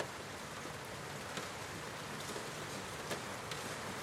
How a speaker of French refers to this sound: Tiens, la pluie est déjà là. Vous pouvez entendre le son de ma voix posée sur la pluie qui tombe goutte à goutte sur cette fenêtre.